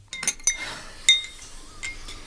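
Dishes and cups clink together in a few sharp, bright taps, with ringing tones after the loudest knock, as tea is prepared in a kitchen; no voices are heard.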